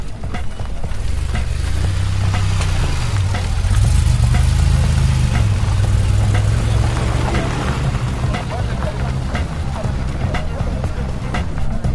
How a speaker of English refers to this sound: Just spotted a DeLorean DMC 12. We might get a sound of the. What was it called? The Douvrin engine? Here we go.